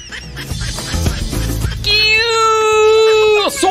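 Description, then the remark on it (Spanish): A loud duck quacking sound effect, played for a duck gift sent via Telegram: a burst of rapid, choppy quacks gives way to one long, nasal, drawn-out quack that drops off sharply at the end. “Stephanie Guillén dice que por acá regalaron un patito.”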